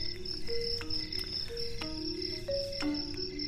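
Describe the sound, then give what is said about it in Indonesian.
Steady high-pitched cricket chirping fills a very quiet night setting beside many frangipani trees, with faint tonal drones and low rumble underneath; no voices, just a continuous insect buzz. “Malam hari ini gue udah berada di tempat sepi banget, sepi sunyi, cuma ada suara jangkrik.”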